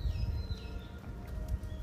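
bird, birds singing

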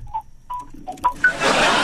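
signal or alarm, phone ringing

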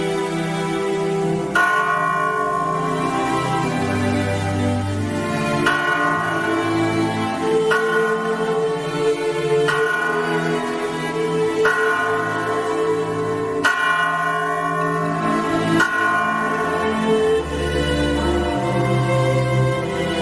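signal or alarm, church bells ringing

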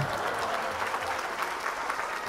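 crowd, applause

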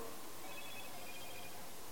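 signal or alarm, telephone ringing

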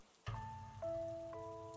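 nature, heavy rain pouring down

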